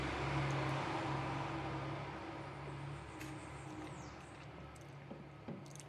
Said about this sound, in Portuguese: caminhão passou aqui, né?